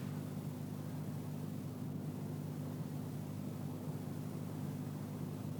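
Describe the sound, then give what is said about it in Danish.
Steady street noise with a continuous engine rumble and low droning hum, like a car idling or traffic passing, holding at an even level with no voices. “Igen bil og gadestøj.”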